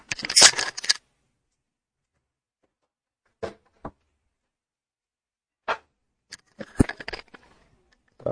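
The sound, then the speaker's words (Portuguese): A door being closed to shut out loud noise: a brief rustle, a few scattered sharp clicks, then a solid thud with latch rattling near the end. No one speaks. “tive que fechar a porta ali porque o barulho estava alto.”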